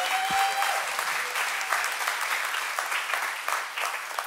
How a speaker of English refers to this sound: So, one more time, can you give it up for your lead pastors? Aren't they incredible?